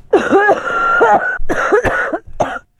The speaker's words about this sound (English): I miss those. I miss those coughing fits. Yeah, you know, some days you get up and you got that.